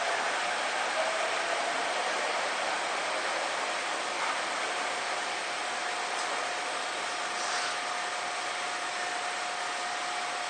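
A Seibu 6000 series commuter train running between Wakoshi and Shin-Kiba, heard as a loud, unbroken rushing roar with a thin steady whine threaded through it, continuous throughout with no voices.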